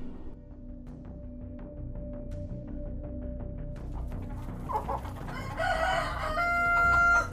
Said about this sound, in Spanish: Los gallos empezaron a cantar. Eran las 3 de la mañana de aquel 15 de marzo de 1939.